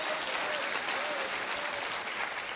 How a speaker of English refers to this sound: Clap your hands right now and rejoice in that.